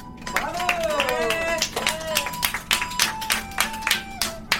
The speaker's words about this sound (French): a gagné de très loin, on peut l'applaudir.